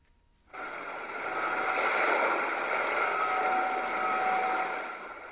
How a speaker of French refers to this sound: Vient ensuite le bruit des vagues, ce qui représente la mer qui sépare l'île de la Grande Terre.